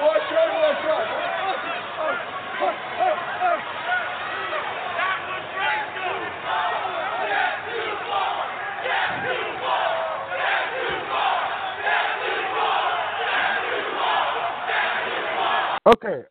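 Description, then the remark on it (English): A large crowd of wrestling fans yells and shouts continuously, a dense roar of overlapping voices with rising cheers, ending abruptly with a sharp knock. “Uh, fans in the audience yelling, that's too far.”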